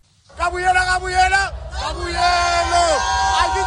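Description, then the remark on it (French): A crowd of about 50,000 blue-and-yellow Mamelody Sundowns football supporters at Loftus stadium in Pretoria roars and chants in sustained, loud unison after their team won the first African League final, the massed voices swelling and sliding downward in pitch twice over a constant rumble of cheering. “C'est une foule bleue et jaune déchaînée qui a rempli le stade Loftus de Pretoria et ses quelques 50 000 places.”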